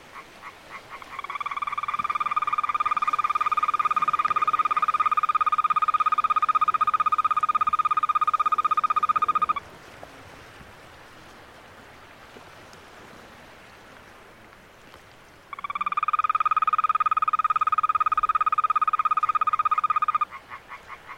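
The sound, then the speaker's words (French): A toad's long, steady trill rings out loud in a nature reserve at the southern tip of Corsica, near Suerton, holding one high buzzing pitch for several seconds, breaking off, then starting again after a quiet pause with faint background hiss. “Et euh, il s'agit du, chant d'un crapaud.”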